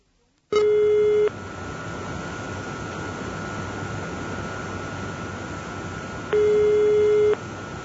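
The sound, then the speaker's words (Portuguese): Two ringback tones, each about a second long and spaced several seconds apart, sound through a phone line over a steady background hiss as a sewage treatment plant manager phones the mayor. No one speaks. “Seu Veinck pega o telefone e liga para o prefeito.”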